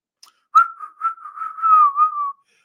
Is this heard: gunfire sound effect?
no